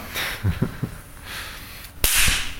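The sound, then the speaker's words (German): A single sharp, loud bang as capacitors charged to a high voltage discharge, a sudden crack followed by a short hissy tail, preceded by a few soft low thumps and quiet background noise. “wir laden die Kondensatoren jetzt dann doch schon auf eine nennenswert hohe Spannung auf und da äh, ist auch richtig Energie drin.”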